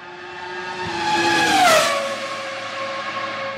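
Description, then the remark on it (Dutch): A high-pitched Ferrari Formula 1 V10 engine, from the V10 era of the 1990s to 2005, screams as the car rushes in, its whine dropping sharply in pitch as it passes, then holding a steady, fading howl. No voices. “Maar daarvoor had je de V10.”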